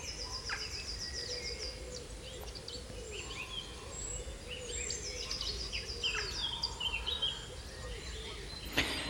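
A busy spring birdsong chorus fills a West Country oak woodland, many birds singing and chirping at once over a steady low background rumble.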